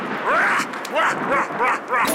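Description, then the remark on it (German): A dog gives about five short, high yelping barks in quick succession, each with a bending, whine-like pitch, fairly loud against a soft background. “Hier ist Labrador, der germanische Hundegott mit dem Hammer.”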